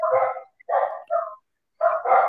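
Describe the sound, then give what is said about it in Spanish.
A household guard dog barks loudly, four or five sharp barks in quick bursts with a short pause before the last pair, with no one talking over them. “Ay, ese pinche perro son, mis guardianes.”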